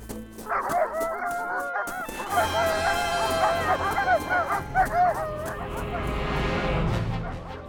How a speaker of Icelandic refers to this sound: Baba Jaka sendi fyrst hundana eftir þeim.